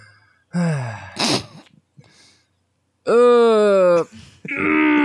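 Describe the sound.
A voice imitates exasperated groaning sighs: a drawn-out moan with a breathy gasp, a pause, then a longer, louder strained groan trailing into another sighing moan.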